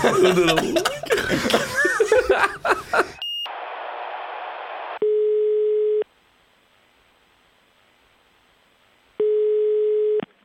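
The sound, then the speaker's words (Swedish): After a burst of laughter and chatter, a steady electronic telephone queue tone sounds twice, each lasting about a second, separated by a long quiet gap with a faint hiss. “Va, nej, va, va, vad var det för telefonkö?”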